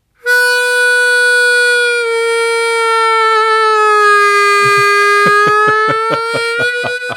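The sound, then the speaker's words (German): A loud, reedy harmonica plays bent blues notes, holding one long note that sags slightly in pitch, then breaking into a quick train of rhythmic, chugging blasts, played solo with no voices. “Du kannst nämlich die Töne und die Stimmtonen kannst du doll bögen.”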